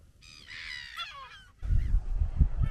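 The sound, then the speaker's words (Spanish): Harsh, honking calls of nesting seabirds such as herons and gulls ring out for about a second on an island with a wetland, then give way to a low, blustery rumble like wind or surf. “Aquí la isla también tiene un, humedal dentro donde anidan los cisnes, eh, anidan las garzas, las gaviotas, anidan las pachancas eh, y un sinfín de, aves.”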